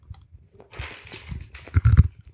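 Crunchy chewing of ice, a run of sharp, irregular crackling bites that grows louder toward the end, with heavy low thuds of the jaw under the crunches. No one speaks.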